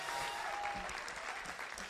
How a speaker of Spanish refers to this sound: Alguien diga, gloria a Dios. Dale un aplauso fuerte a Jesús, vamos.